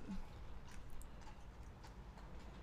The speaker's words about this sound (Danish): der kommer politi på hest. Sorry. Ja. det er sådan, vi sidder på Islands Brygge, som, eller vi sidder ikke så langt på bryggen, som er lukket ned, så der er ret meget politi.